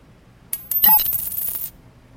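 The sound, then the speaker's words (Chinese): Coins rattling inside a tortoise shell: two quick sharp clicks, then a bright, busy metallic jangle lasting about a second before it stops abruptly. No voices. “哇，这是龟壳。”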